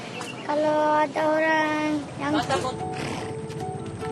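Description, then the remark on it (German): Horses whinny loudly with drawn-out, wavering neighs and more calls following over a steady outdoor background, as they run laps on a beach on Sumba in the evening. “Am Strand drehen die Pferde ihre Runden.”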